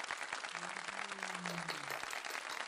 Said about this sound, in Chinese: 欢迎，这时候就会有拍手声。